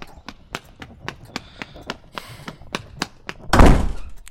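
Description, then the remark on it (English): Quick, evenly spaced footsteps hurry closer, then end in a single heavy, loud thud as someone bumps hard into a closed door. No one speaks. “You got to open the door first”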